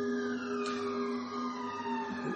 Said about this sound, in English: The sirens going off again in New Brighton.